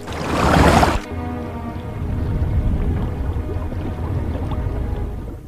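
A loud splash bursts out for about a second as a person plunges into a river full of stones, then gives way to a steady, churning rush of river water that continues to the end.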